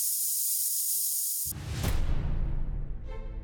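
A steady, close fizzing hiss, then a sudden louder burst of crackling, bubbly effervescence as a tablet dissolves, continuing busily to the end with no voices.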